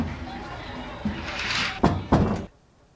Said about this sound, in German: Also das ist der Türke. Der Türke ist wirklich sehr laut. Wir ziehen die Tür nach Möglichkeit leise ran und da wird sie zugeknallt, so dass man senkrecht im Bett steht.